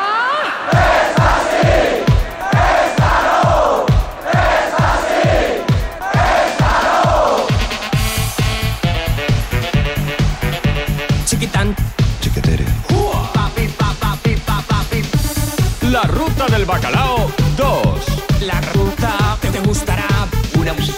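Pounding 90s-style Spanish techno of the Ruta del Bacalao scene with a steady, fast kick drum; for the first few seconds a crowd chants and shouts over the beat, then dense, loud synth layers take over.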